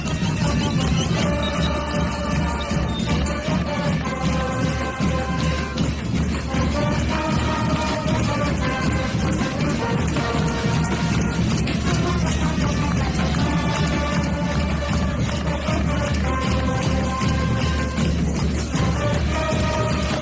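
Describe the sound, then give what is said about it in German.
A large protest crowd in Chile chants the slogan "Chile despertó" in unison, many voices rising and falling together in a steady, repeating melody, loud and continuous throughout with no separate speaker. “Ihr hört ihn auch gerade im Hintergrund im Demogesang.”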